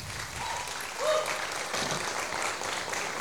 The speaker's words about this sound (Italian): Uh, ma cos'è questo applauso? Di più ragazzi, forza, ma...